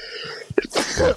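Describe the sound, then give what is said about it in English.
A single sneeze, fairly loud: a quick gasping intake followed by a sharp, breathy burst that trails off in about a second. “Bless you”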